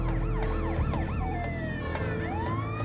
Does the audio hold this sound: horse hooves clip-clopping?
no